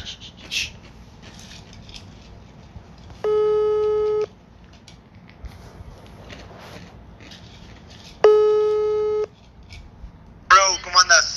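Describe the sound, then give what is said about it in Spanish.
A phone ringback tone sounds twice while a call waits to be answered, each a steady one-second buzz separated by a long pause, over low background murmur, with a brief voice near the end. “Vamos a ver si me contesta.”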